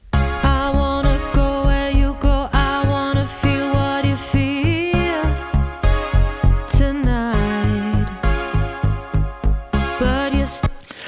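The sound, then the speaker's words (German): A dry sung vocal recording without delay, with a long pause after the word 'Tonight', carried over a steady pulsing beat and bass that thumps roughly twice a second throughout. “Denn ich habe hier eine Gesangsaufnahme, die ich an ein, zwei Stellen mit einem Delay versehen möchte.”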